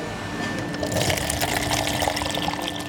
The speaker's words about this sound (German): Jetzt habe ich zwei Gläser und wir werden zapfen. Juhu!